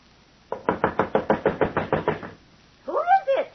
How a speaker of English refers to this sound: Coming. I'm an old woman. You knock like the very devils behind you.